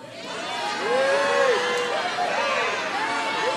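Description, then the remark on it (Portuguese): A large crowd at a night gathering shouts and cheers with joy in a shout of faith, a dense, steady roar of many voices with individual high-pitched cries rising out of it, loud throughout. “Barulho de gritos de alegria, gritos de júbilo.”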